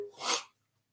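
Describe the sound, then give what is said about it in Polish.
A single sharp, fairly loud sneeze: a brief voiced intake, then a burst of breathy hiss that quickly cuts off into silence. “prosić jakiegoś gościa, żeby przyszedł i, i o, kichnę?”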